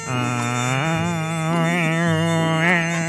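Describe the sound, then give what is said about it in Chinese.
A mosquito buzzes steadily for about three seconds, a rich nasal drone whose pitch wavers up and down as it flies around, holding an even loudness with no talking. “很久很久以前，有一天，有一只蚊子。飞来飞去，乖乖，就是那种很讨人厌的飞法，”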